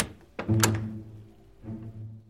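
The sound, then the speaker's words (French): Knocking on a wooden door: two hollow knocks in quick succession, a pause, then a third. Each is dull and resonant, with no voices. “frappa à la porte.”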